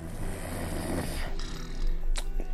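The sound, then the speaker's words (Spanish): Loud, deep snoring fills the moment, a heavy rumbling rasp that swells and sputters without pause, dominant with no voices over it. “y roncaba. Además, roncaba como solo roncan los ogrontes.”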